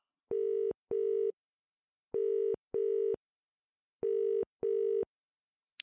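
A telephone call being placed to a friend: three pairs of steady electronic ringing tones with short gaps between them, clear, no voices.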